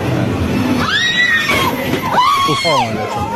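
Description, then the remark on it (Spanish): A person in a video clip lets out two high, strained screams that rise and fall in pitch, loud, over a busy, noisy background. “grita.”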